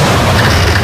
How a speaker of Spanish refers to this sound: Una tormenta destrozando tu antena suena así.